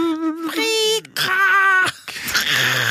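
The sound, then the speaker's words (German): A voice imitates an external dial-up modem connecting: high, warbling whistles and tones broken by short hissy noise bursts, loud for about three seconds. “Kannst du mir den Sound von dem externen Modem machen?”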